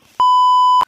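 A single loud, steady censor bleep, a pure high tone held for just over half a second with clicky onset and cutoff, after a moment of faint low noise.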